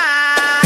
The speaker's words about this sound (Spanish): Tengo el sonido de la lata.